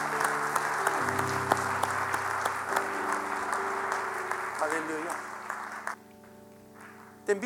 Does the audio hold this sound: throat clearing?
no